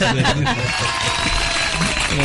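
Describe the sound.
A burst of clapping from a small group fills a couple of seconds, steady and fairly close, with voices murmuring underneath the applause.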